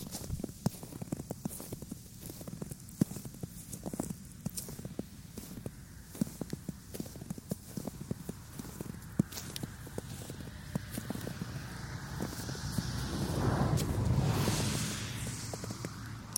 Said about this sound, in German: Das Laufen durch Schnee. Es ist so herrlich.